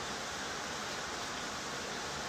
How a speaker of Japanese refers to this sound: 雷と雨で浄化されていく感じっていうか洗い流されていく感じっていうか抜けていく感じっていうか。